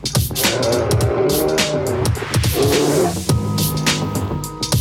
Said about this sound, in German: Bärengeräusche, jetzt verstehe ich das. Das hat ein bisschen gedauert am Anfang.